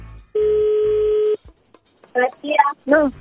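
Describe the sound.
A phone call rings through: one loud, steady electronic ringback tone lasting about a second, a brief pause, then a voice answering over the line.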